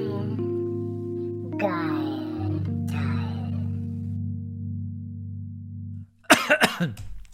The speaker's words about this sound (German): So, ich habe jetzt nochmal kurz gemutet und nochmal kurz gehustet. Also ich habe es gehört, das äh, Husten.